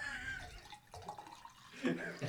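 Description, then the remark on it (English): A drink being poured into a glass, a short, steady liquid splash and trickle with a faint rising ring, with muffled voices in the background. “Well, pour one as your heart contends, and uh, whenever you're ready, make sure.”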